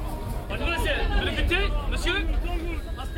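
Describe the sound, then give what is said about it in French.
A busy Sunday crowd at the Abattoirs market in Brussels fills the space with steady hubbub, many overlapping voices chattering at once, fairly loud, with no single conversation standing out. “Aujourd'hui, on est dimanche, je suis au marché des abattoirs”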